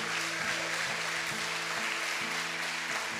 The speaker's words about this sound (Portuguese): Se essas palmas são para Jesus, podia ser melhor. Podia ser melhor.